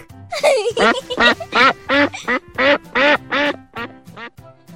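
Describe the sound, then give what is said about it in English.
A duck quacks about ten times in quick, steady succession, loud and close, each quack a short nasal burst with brief gaps between, and no talking over it. “You look like a duck.”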